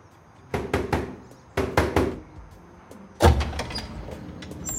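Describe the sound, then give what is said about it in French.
A woman knocks on the metal door of a warehouse: two quick sets of three loud knocks, the second set following a short pause, then a heavier clanging bang that rings out briefly. No voices. “Elle sort de son sac une enveloppe rouge et se dirige vers la porte métallique de l'entrepôt.”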